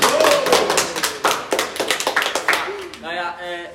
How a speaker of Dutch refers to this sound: Eh, opnieuw, en je mag hem nu aankondigen. en dan ben het applaus.